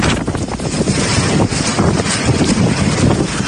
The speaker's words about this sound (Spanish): Contamos también que toda la costa de Galicia y el interior de la cordillera cantábrica están en estos momentos en alerta naranja por fuertes rachas de viento. Así suena en el paseo marítimo de La Coruña.